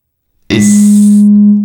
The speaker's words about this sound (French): Oula, ça buzz. C'est le... ouais, c'est la sirène, la dub sirène.